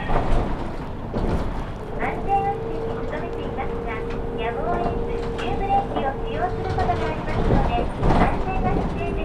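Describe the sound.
Inside a moving Saihi Bus city bus riding from Yumiharidake Observatory to Sasebo Station in Sasebo, Japan: a steady engine drone with a sustained whine, road rumble and rattles, while a recorded voice announcement plays over the cabin noise.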